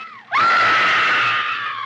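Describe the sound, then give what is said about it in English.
A woman's loud, piercing scream in a horror film bursts in after a brief lower vocal sound and holds steady at high pitch for over a second, sustained with no talking over it. “still the gold standard, I think, for screamers.”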